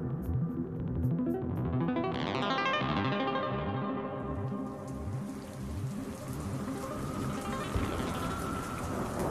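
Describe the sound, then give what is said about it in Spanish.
Heavy rain pours down steadily and loudly during a night thunderstorm at a castle, a dense continuous wash of sound with a deep rumbling undertone of thunder. No one speaks. “Esa noche había una fuerte tormenta en el castillo. Se escuchaba el retumbar de los truenos y relámpagos.”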